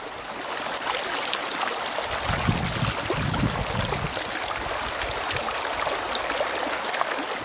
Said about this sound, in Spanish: Bueno, ya escucharon suficiente agüita.